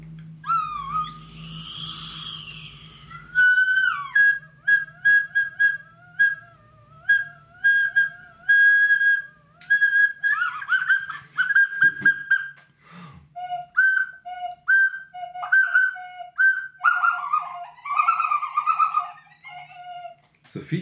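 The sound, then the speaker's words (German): Loud whistles blown through a mouthpiece, a string of short and sustained tones at shifting pitches, some warbling and bird-like, opening with a raspy crowing burst. No one speaks. “Was man Oder nur, was aus, nur aus so einem Mundstück rauskriegt.”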